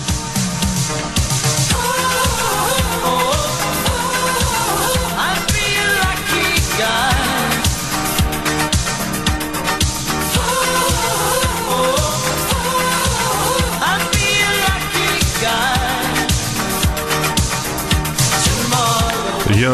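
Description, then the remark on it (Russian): A loud, upbeat 1980s Euro-disco pop song plays continuously on a live broadcast, with a steady pounding dance beat, bright synth layers and melodic lines filling the whole stretch without pauses. “…, …. Ну, давайте освежим в памяти, если кто-то забыл.”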